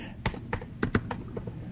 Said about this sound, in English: I start typing Missouri, and I come up with cities, MISS, um, state Missouri.